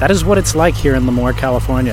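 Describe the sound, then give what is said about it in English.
A low, steady engine rumble from a tractor going by at the Surf Ranch Pro surf event runs underneath a man speaking into the microphone, continuous throughout and partly masked by his voice. “You could probably hear a tractor going by in the background.”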